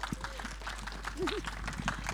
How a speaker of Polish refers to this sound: Wielkie brawa.